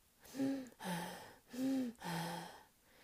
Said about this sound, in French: Hmm, et maintenant, écoutons ta respiration. Attention, ça va chatouiller. Respire doucement.